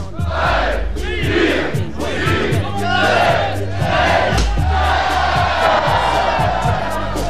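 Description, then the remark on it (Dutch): A large crowd in a big hall roars and cheers continuously at the start signal of a skating race, as 306 racers set off toward the Zwettehaven to put on their skates. Loud rhythmic chanting and whoops echo, building in energy as the noise swells. “Nog 10 seconden en die gaan we even met het geluid van in de zaal meebeleven.”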